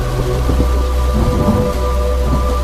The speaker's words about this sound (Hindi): काफी समय तक दोनों के बीच में बिल्कुल खामोशी पसरी रही सिवाय बरसाती बूंदों की आवाज के और कोई आवाज नहीं थी